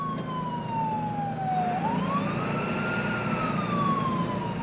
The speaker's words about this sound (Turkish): 15 dakika sonra mavi ışığı ve sireniyle ambulans sokağa girdiğinde insanlar yanı başlarındaki yaşam savaşını fark etti.